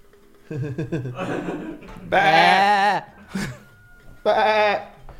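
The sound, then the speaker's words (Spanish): A person mimics a goat, letting out two loud, wavering bleats about two seconds apart, preceded by shorter voiced, chuckling noises. “Eres una cabra. ¿Qué haces?”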